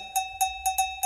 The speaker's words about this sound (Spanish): Y también le pega a un cencerro de metal, que es una especie de campana de, de alguna manera de metal,